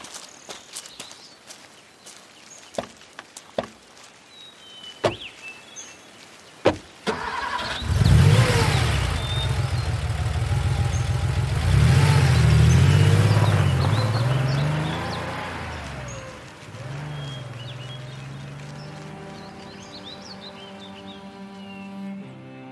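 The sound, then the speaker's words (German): A few footsteps and sharp clicks, like car doors, come first. Then a car engine cranks and starts, rumbles loudly as it pulls away, and settles into a steady idle-like hum. “Da steht mein Wagen, was ist?”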